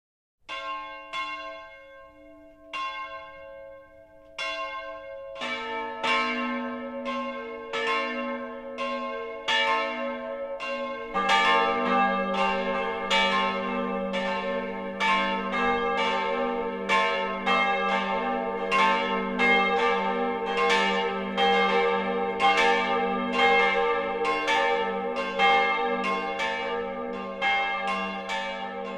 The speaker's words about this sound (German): Es ist 12 Uhr. Das Mittagsläuten kommt heute von der evangelischen Kirche St. Helena im mittelfränkischen Großensee am Eingang zur fränkischen Schweiz.